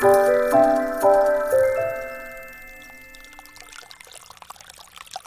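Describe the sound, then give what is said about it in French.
A few ringing chime-like notes fade out, giving way to water running and splashing steadily as it feeds the village wash house (lavoir) of Excideuil, a fairly soft, continuous trickle with no voices. “C'est de l'eau qui coule. Oui, c'est ça. C'est l'eau qui alimente le lavoir d'excideuil.”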